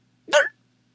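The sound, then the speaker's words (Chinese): A single loud hiccup, a short voiced gulp with a bright, harmonic edge lasting about a quarter second, standing alone against near silence. “可是，当他数到第七条鱼时，他又打了一个响嗝。”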